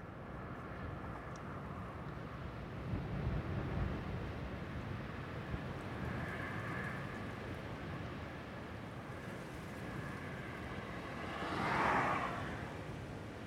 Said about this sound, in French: À ma grande surprise, je me suis retrouvé à écouter le son d'une autoroute au loin, qui a fait remonter à la surface de ma mémoire une image un peu froide de mon enfance.